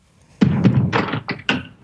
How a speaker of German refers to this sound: Alles okay? Ja, ich habe nur das Fenster zugemacht.